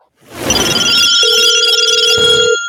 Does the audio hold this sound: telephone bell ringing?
yes